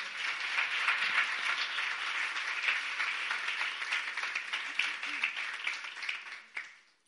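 An audience applauds the Lord at the end of a Bible story, a dense, steady wash of many hands clapping together for several seconds before tapering off at the end.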